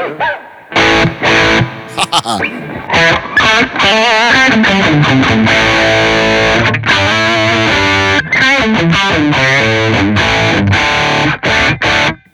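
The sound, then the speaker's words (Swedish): An electric guitar plays through a Big Twin amp model, meant to resemble a Twin Reverb, with a clean, reverb-heavy tone, ringing chords and short melodic runs with bright, full sustain, loud with no voices. “Nej, men vi tar en uh, Big Twins. Jag antar att, det är en, uh, att den är tänkt lite grann som en Twin Reverb.”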